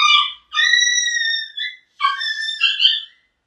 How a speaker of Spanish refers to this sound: Van a disculpar a mi perro. Tiene problemas.